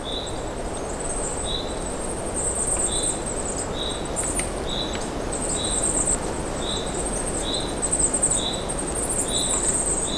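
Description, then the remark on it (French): Forest ambience at minus six to minus seven degrees: a steady rushing hiss underlies a string of short, high chirps repeating at an even pace, with a thin, shimmering trill running above them throughout. No one speaks. “C'est un forêt qui vibre par moins 6, moins 7 degrés.”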